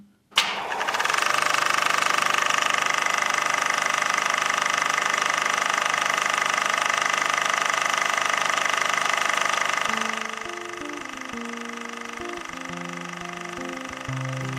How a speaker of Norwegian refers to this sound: Lyden av en kinomaskin. En lyd som har preget kulissene på kinoer over hele verden siden de første kinofilmene dukket opp for over 100 år siden. Men nå stopper snart maskinene for godt, og en lang æra er over.